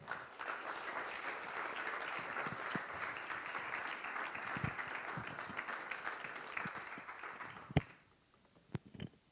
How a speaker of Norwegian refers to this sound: Så nå syns jeg dere skal gi en god og varm applaus